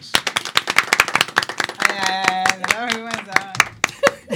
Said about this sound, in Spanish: Un aplauso para el señor Vos.